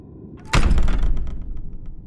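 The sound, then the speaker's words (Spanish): A door slams shut with one sudden, heavy bang. A deep thud and rattling reverberation follow, fading over a second or so. No one speaks. “No pienso perder esta oportunidad, gritó y azotó la puerta.”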